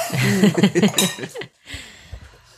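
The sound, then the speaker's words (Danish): Several voices call out together as glasses clink in a toast, a bright ringing tap cutting through the chatter, followed by a quieter moment with faint table sounds. “Skål, og tak fordi I er kommet. Skål. Skål. Skål.”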